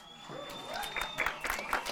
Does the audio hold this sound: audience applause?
yes